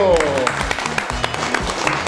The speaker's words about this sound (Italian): oggi puntata bellissima perché abbiamo avuto tutta la mattinata eh, nostre colleghe, nostri alunni e alunne della scuola primaria Arcobaleno di Passo di Treia, la classe quinta, ai quali facciamo un applauso.